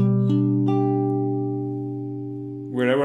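Guitar notes of a G major chord (G, D and B) are picked one after another and left ringing together as a sustained chord that slowly fades, with a man starting to speak right at the end.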